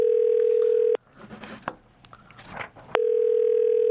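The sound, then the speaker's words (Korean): A phone ringback tone sounds in two long steady bursts, loud, with a gap of about two seconds between them filled with faint rustling and background noise, as the hosts phone a listener. “이분 전화 한번 해보죠.”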